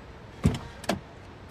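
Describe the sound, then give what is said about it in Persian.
Two short clunks about half a second apart as doors of a car with all four doors open are opened and bags are pulled from its front and back seats, against a quiet background hiss with no talking. “هر چهار در ماشین باز است”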